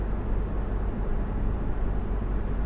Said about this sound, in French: Euh, vous m'entendez, je suis en voiture, je vais à mon travail